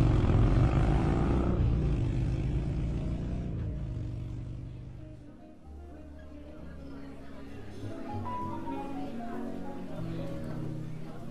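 A propeller airplane engine drones loudly and steadily, its low throbbing hum briefly dipping midway before settling into a constant, slightly lower roar.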